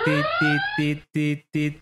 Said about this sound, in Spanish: una alarma.